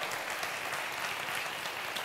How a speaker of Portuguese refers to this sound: Amém, Amém irmão, aleluia, aplauda ele por essa palavra.